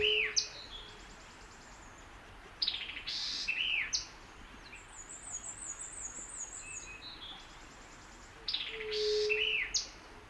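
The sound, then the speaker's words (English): Outdoor birdsong with two species: a white-eyed vireo's loud, sharp, staccato, ratchety phrases in bursts at the start, middle and end, and a black-and-white warbler's thin, high, squeaky repeated song running faintly between them. “Next, I come across a white eyed vireo giving its staccato, ratchety songs, and there's a black and white warbler sounding off in the high range.”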